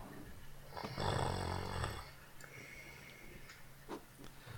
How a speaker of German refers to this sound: Das schönste Schnarchen im Podcastland.